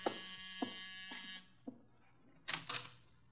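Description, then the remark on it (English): A harsh electric door buzzer drones for over a second, followed after a pause by two short, clipped buzzes. It sounds fairly loud, with no one speaking. “door, Archie. Yes, sir. I hear it.”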